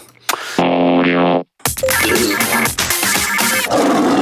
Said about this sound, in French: Car il n'aime pas les lions. Il a peur de se faire manger par les lions, c'est pour ça qu'il n'aime pas ce jingle.